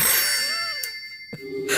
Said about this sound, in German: Tja, ich meine, du musst nicht rangehen, oder? Ach komm, weißt du was? Ich lass klingeln und wir gehen Kaffee trinken.